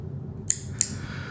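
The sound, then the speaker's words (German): A metal frog clicker, held in the hand, snaps twice in quick succession, two sharp, bright clicks, with a quiet low hum behind them and no talking. “So ein, so ein Klicker, so ein Froschklicker, ja.”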